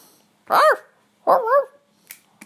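A dog lets out two loud, drawn-out barks with a yowling, wavering pitch, spaced about a second apart, followed by a couple of faint clicks. No one speaks.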